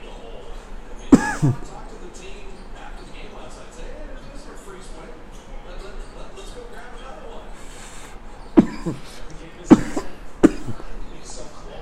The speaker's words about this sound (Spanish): ya se me está ahogando aquí mi, compadre